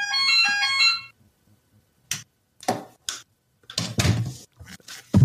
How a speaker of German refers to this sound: Aber, aber das ist doch kein Klingeling. Das, das ist aber ein ganz angenehmer Ganz angenehmer Klingelton.